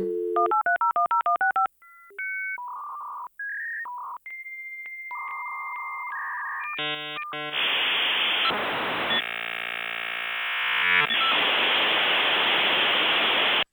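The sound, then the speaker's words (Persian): A rapid run of telephone keypad dialing beeps, followed by several held electronic tones at shifting pitches, then a burst of harsh, loud hissing static that lasts to the end. “باز دوباره اینترنتمون قطع شد من نمیدونم چرا باید زنگ بزنم حتما به این کاستومر سرویسشون”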